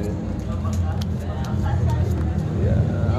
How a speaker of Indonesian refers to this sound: tuh ada suara motor lewat kan kalau kedengeran tuh kedengeran sih